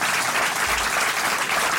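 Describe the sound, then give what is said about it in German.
Steady, dense applause from the enthusiastic audience of a German TV discussion broadcast fills the whole stretch, a loud continuous wash of many hands clapping at an even level with no voices standing out. “Das merken Sie jetzt schon am Applaus.”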